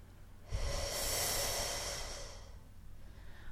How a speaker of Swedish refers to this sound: Så att det, liksom, det där kan man träna ganska mycket, att man, liksom, man säger långa sådana här S och sen så andas in.